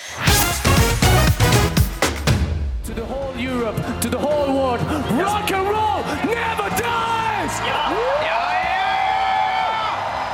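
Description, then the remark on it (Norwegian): Several thousand audience members in the hall at the Eurovision Song Contest in the Netherlands applaud in a loud, dense burst for a few seconds, then cheering takes over, with rising and falling whoops and yells for their favourites carrying steadily above a continuous roar. “Ja, sånn låt det under Eurovision Song Contest i Nederland forrige helg, og flere tusen publikummere klappet, jublet og heiet på sine favoritter fra salen.”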